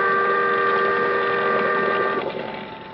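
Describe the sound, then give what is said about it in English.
A boat siren blares in fog on San Francisco Bay as the boat passes a few yards away: one loud, sustained, steady tone for about two seconds, then tapers off as it fades, with no voices present. “But the boat siren, crying its warning, drowned out my shouts.”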